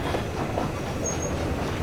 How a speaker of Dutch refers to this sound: Een schok in de wagon geeft aan dat de locomotief afremt. Ze naderen Leeuwarden. Met grote stoomwolken en een hoop gesis rijdt de trein het station binnen en komt tot stilstand.